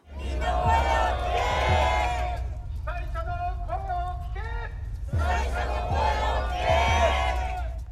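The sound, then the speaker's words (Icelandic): A crowd of protesters outside the Prime Minister's office in Tokyo chants loudly in unison, demanding the government listen to fishermen and not pollute the sea, then a single amplified voice leads a line, and the crowd answers again in a rhythmic call-and-response over steady crowd noise. “Hlustið á áhyggjurattir sjómanna og fornarlamba kjarnorkuslýsa ekki menga hafið, kyrjuðu mótmælendur.”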